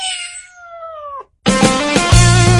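A cat at Cat Café Bilbao, a cat café in Bilbao, lets out one long, drawn-out meow that sags in pitch at the end, clear. After a short silence, loud music abruptly kicks in.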